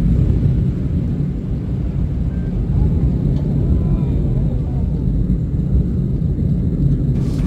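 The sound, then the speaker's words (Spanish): A continuous deep roar of lava from the Cumbre Vieja volcano eruption on La Palma pouring off a 100-metre cliff into the sea, a dense low rumble with hissing texture that holds steady and loud throughout, with no voices. “Es el sonido, es el momento en el que esa colada de la vaca y al mar desde un acantilado de 100 metros de altura, las imágenes son impresionantes, incluso para quienes están acostumbrados a estudiar este tipo de fenómenos.”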